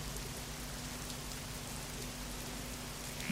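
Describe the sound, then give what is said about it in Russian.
Steady rain falls after sunset at a summer country house (dacha) in a continuous soft hiss with scattered drops pattering on a surface, plus a low constant hum underneath. No voices, just the even wash of rainfall throughout. “А после заката, с началом дождя, нет места спокойнее, чем эта гостиная с диваном.”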